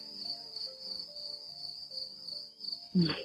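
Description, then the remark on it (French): A cricket chirps steadily in a continuous high-pitched trill, clear, with soft low tones underneath and a brief louder thump near the end. “La littérature écarte les barreaux, la nature se faufile, les surveillants passent la tête, une émission pour lecteurs agiles, narration, action, grillon.”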